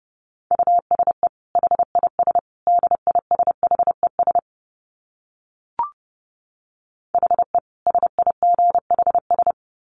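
Rapid Morse code tones at about 30 words per minute: a steady single-pitched beep keyed into quick dots and dashes, in two runs separated by a pause with a brief click. No voices.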